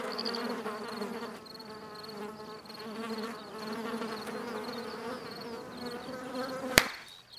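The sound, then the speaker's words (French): A mosquito's whining buzz hovers steady for several seconds, wavering slightly in pitch, then a single sharp slap kills it, leaving near silence. “Quatrième et dernier épisode, le moustique.”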